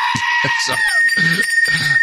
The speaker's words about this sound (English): it's a goat woosah.